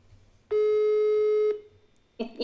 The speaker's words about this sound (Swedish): Ska vi se om han svarar när jag ringer för att han, han har inte mitt nummer.